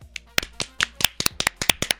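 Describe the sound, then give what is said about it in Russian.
Sharp hand claps ring out in a quick, uneven burst, about a dozen in two seconds, like a small group applauding with no voices. “Аплодисменты вам!”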